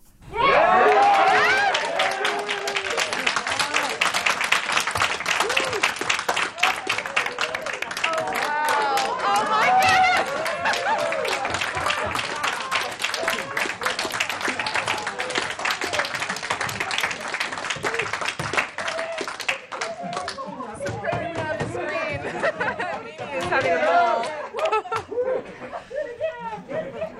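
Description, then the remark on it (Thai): Staff in the JPL lab burst into sustained applause and cheering on receiving the first images sent back from the Perseverance rover and Ingenuity helicopter, dense clapping with excited shouts and chatter that carries on for nearly twenty seconds before thinning into scattered voices and a final swell of cheers. “เดี๋ยวมีบรรยากาศของการรับภาพครั้งแรกนะคะ ว่าเห็นภาพแล้วเนี่ยในห้องแลบเขาตื่นเต้นกันขนาดไหนค่ะ”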